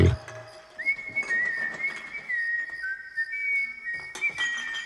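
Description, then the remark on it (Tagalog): A man whistles a tune in clear, sustained notes while repairing a broken electric fan on a terrace, the melody gliding between a few pitches, with faint clatter and rustling underneath. “nagkukumpuni ng isang sirang electric fan sa terrace nila habang sumisipol-sipol.”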